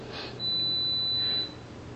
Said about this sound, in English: Oh, so we're going to come to a close. Somebody's got the timer on me today. It is right at close to 60 minutes, so I am about done.